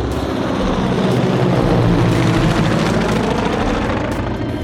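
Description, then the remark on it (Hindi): A helicopter passes very close in front of a sea-facing Standard Chartered Bank tower in Hong Kong, heard from the 36th floor, its rotor thumping in a steady rapid pulse over a loud, broad engine drone that stays strong throughout with no voices. “standard chartered bank sea facing tower में 36 floor से काम चलता था अपना बेहतरीन नज़ारा होता था सामने सी और फिर अदर एंड पर हांगकांग पेनिनसुला की बिल्डिंग्स टावर्स एट्सेट्रा अक्सर सामने से हेलीकॉप्टर निकल जाते थे बिल्कुल नज़दीक से”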